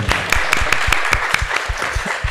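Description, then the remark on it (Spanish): A short burst of applause: quick, fairly even hand claps repeating at a steady pace for a couple of seconds, moderately loud, with no talking over them. “si nos estás escuchando, felicidades y precisamente este es el espacio, un pequeño aplauso.”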